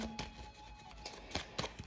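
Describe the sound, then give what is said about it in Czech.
Tarot cards being shuffled, heard as soft papery flicks and a few sharper snaps at irregular intervals over a faint steady hiss, with no voices. “To mě asi ty karty budou takto, když se na vás nacítím padat pořád.”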